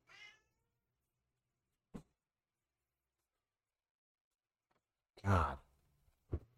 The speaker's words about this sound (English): Fucking cat. Damn. I love it. Damn cat.